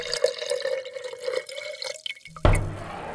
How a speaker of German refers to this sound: Wollen Sie irgendwas zu trinken haben? Ja, gerne Wasser. Und Wasser, okay, gieße ich ein. Mal ganz poppig. Poppig, okay, gieße ich ein. Hier, blub, blub, blub, So.